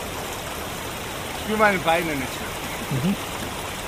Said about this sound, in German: in einen der wilden Bergbäche im Aostetal stürzt